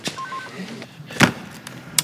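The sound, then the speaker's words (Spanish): Two telephone handsets being hung up, each a short plastic clack, the first sharper and louder, the second a moment later. A few faint electronic beeps come just before. “Los dos cuelgan el teléfono sonrientes.”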